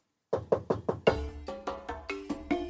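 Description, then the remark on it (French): Someone raps on the wooden door of a small thatched cottage about ten times, four quick knocks followed by slower, slightly heavier ones, clear with a short ringing after each, and no voices. “Lily se risque à frapper à la porte.”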